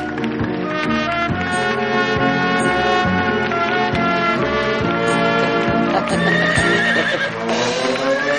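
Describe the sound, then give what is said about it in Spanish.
A horse, painted and ridden in by Guido, whinnies amid steady clip-clopping hooves, set in a dense, continuous wash of sound that stays loud and busy for the whole stretch, with no talking. “Por el fondo aparece Guido montado en el pintarrajeado caballo de su tío.”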